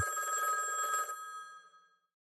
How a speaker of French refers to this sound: L'espoir et la détermination étant ses moteurs, eh bien, il ne perd pas son courage et continue à croire en sa bonne étoile jusqu'au moment où, un jour, le téléphone sonne.